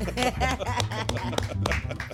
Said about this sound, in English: Give her a round of applause, ladies and gentlemen.